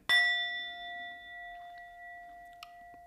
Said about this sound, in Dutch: we besluiten de podcast altijd zoals we beginnen met de gong, de magische gong